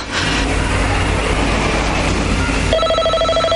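telephone bell ringing

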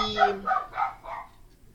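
dog barking repeatedly

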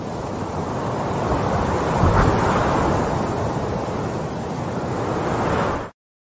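wind sound effect jingle

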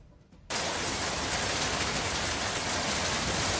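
heavy rain downpour

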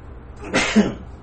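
sneeze

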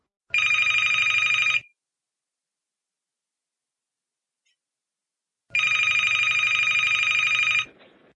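telephone ringing

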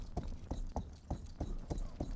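horse hooves clip-clopping

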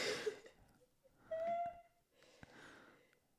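sneeze

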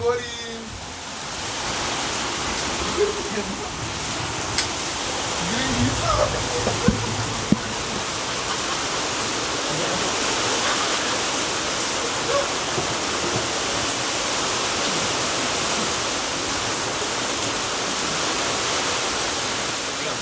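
rain

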